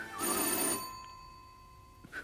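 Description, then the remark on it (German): A telephone bell rings in one loud, bright burst of rapid metallic trilling, then its ringing tones fade slowly away before a brief softer chime near the end. “Er ignorierte das Klingeln immer noch.”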